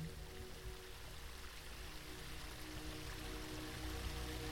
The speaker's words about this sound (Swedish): Så på avstånd hör du ljudet av vatten.